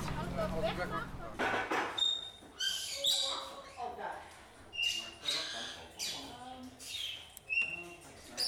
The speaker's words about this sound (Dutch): zit hier in de educatieruimte, omringd door allerlei tropische vogels en eh, hardwerkende vrijwilligers.